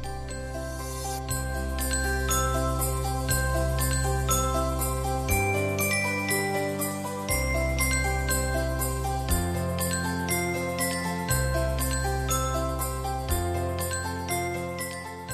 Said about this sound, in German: Dazu esse ich Milchreis und höre dabei Klingeling, Glöckchen klingen.